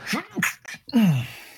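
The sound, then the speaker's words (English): A fairly loud sneeze: a few short breathy vocal catches build up, then a single voiced burst that drops in pitch and trails off. “Bless you.”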